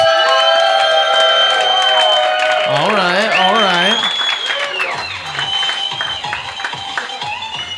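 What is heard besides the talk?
audience applause and cheering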